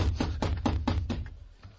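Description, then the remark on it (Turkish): Police knock on a door demanding it be opened: a rapid series of about five firm, evenly spaced knocks over a low background rumble, then stopping abruptly. No one speaks. “Size kapıyı açın diyorum yoksa kırarak içeri gireceğim.”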